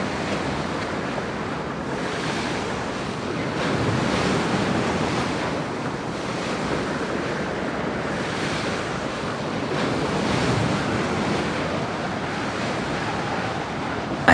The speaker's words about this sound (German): Eine leichte Gischt spritzt auf, wenn sich das große weiße Segelschiff im Wasser behäbig auf und niedersenkt.